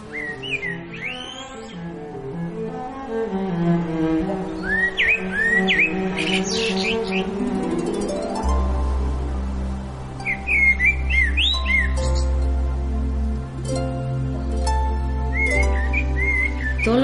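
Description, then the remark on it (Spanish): Bright bird chirps and whistled calls come in short bursts, recurring every few seconds over a steady instrumental music bed that gains a deep bass partway through. “Las aves, los animales de la tierra, las plantas, todo en lo que se alimenta y todo en donde conviven nuestros animales.”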